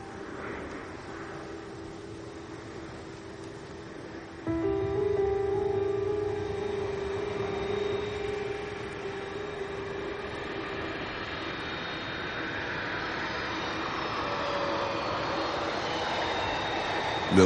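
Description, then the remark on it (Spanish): A steady airplane engine drone with a whining tonal hum from one of the aircraft at an aerodrome, jumping louder after a few seconds and holding a rough, sustained roar to the end. No one speaks. “Milo observa atentamente uno de los aviones del aeródromo.”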